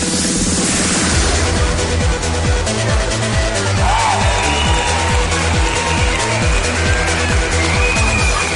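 A loud electronic dance track plays close and steady, with a pounding, regular bass beat under a dense, buzzing synth lead. Nobody talks over it.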